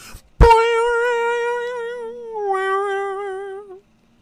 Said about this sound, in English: You know, had a little Sony up there, orange, white background. Just an iconic noise. Anybody who had a PlayStation know that noise. Fucking chills down my spine when I hear it sometimes.